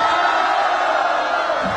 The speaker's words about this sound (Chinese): 感谢大家，谢谢大家，掌声鼓励，谢谢。